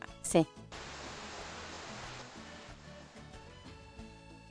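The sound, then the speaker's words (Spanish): A steady roar of ocean waves and wind rushing continuously for several seconds, following a brief sharp sound at the very start. “Se escuchan las olas y el viento.”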